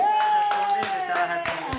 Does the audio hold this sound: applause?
yes